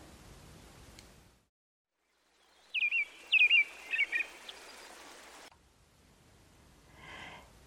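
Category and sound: bird, bird singing at dawn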